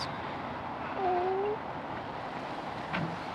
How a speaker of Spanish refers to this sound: Seis gatos. Eh, esto es un festival felino. Madre mía, el cálico. Es que me gustan mucho los cálicos, son súper bonitos.